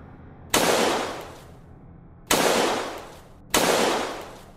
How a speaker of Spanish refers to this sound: Sagredo y Top Collins se acercaron al auto y de unos contundentes balazos en el tórax